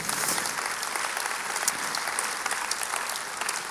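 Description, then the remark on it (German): An audience claps steadily, a dense, sustained patter of many hands that stays at an even, moderately loud level throughout, with no voices rising above it. “Und das ist ein Applaus wert, weil das ist Wunder.”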